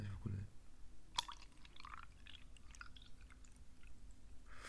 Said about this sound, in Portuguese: Antes de mais, aqui um ASMR. Olha esta água a cair.